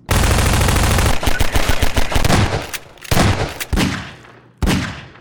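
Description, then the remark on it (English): Loud, rapid automatic video game weapon gunfire in a sustained burst, then choppier volleys of shots with sharp cracks and brief pauses, ending with a final heavy blast that fades out. “The weapons sound even better this time around.”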